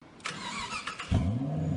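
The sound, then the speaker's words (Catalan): A convertible car's starter whirs and grinds in short bursts for under a second as the key is turned in the ignition after failed tries, then the engine catches with a low rumble that settles into a steady idle, fairly loud. “Posa la clau al contacte, la gira, el motor no s'engega.”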